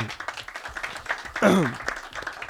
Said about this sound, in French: On peut applaudir s'il vous plaît.